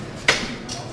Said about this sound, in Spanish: Ahora se toca el martillo, ahora sí.